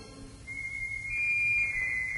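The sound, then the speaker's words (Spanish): A shepherd's flute, played by a shepherd with three sheep, plays a single high, thin, sustained note that shifts slightly in pitch a couple of times, steady and clear over a low background rumble, with no voices. “¿Qué será eso? Parece una flauta. Debe ser un pastor.”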